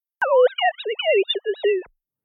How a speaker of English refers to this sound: And most of those people said they heard things like science fiction sounds or animal cries. Researchers played people sine wave speech. It's real speech, but it's artificially degraded so that any evidence of a message is completely lost